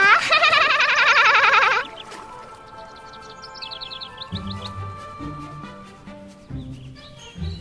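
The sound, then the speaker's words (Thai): A little bird's loud, warbling morning wake-up call trills for about two seconds, then softer, quicker chirps flutter in the background over low, steady tones. “เสียงเจ้าเนี่ยปลุกข้าได้ทุกเช้าเลยนะเนี่ยเสียงดีจริงๆ เช้าวันไหนไม่ได้ยินเสียงเจ้า เช้านั้นน่ะคงเงียบสงบเลยนะ แหม ฉันก็มาปลุกให้สัตว์ทุกตัวตื่นไงจ้า”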